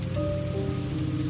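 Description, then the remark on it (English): Heavy rain pours down in a steady, dense wash of noise, constant and fairly loud throughout, with a faint low hum running underneath and no voices. “Yeah, wasn't as heavy as before, but it's really coming down now.”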